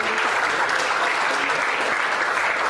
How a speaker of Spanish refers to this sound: Un aplauso